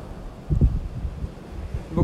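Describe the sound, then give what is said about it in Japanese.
Gusty seaside wind buffets the microphone in low, rumbling bursts that rise and fall, over a soft, steady rush of ocean waves in the background. “えー、じゃあ何の話しようかなあんま考えてんねんけどまあ海いやせっかく海来てんねんから海の話をしようかな”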